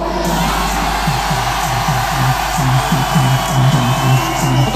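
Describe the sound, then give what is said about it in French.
A dense roar from a large crowd at the Accor Hotel Arena in Paris-Bercy, France, with the pit nearly full, loud and continuous, with a rhythmic pulse running through it like rapid chanting or shouting in unison. “Pour ceux qui sont en voiture, pour ceux qui sont au taf, Paris-Bercy, faites-vous entendre.”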